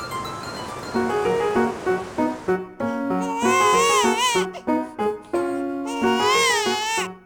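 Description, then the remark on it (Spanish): A newborn baby girl in Veracruz, in 1938, cries in loud, high-pitched wails that quaver up and down, several bursts broken by short gasps, following a second of low background noise. “Oye, ¿cómo llora? Es que tiene pulmones fuertes.”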